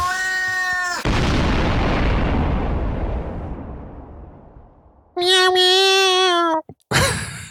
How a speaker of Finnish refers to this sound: Mitä sille murulle kävi lopussa, kun tuli räjähdys?